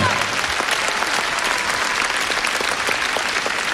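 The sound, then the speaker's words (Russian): Sustained applause from a festival audience of about 6,000 for the children's musical theatre Domisolka as the performers hold a long bow after their performance. A dense, steady wash of many hands clapping at constant loudness fills the whole stretch with no pauses. “Молодцы, они такие, как уже народные артисты, долго держат поклон, а зрители должны аплодировать все время.”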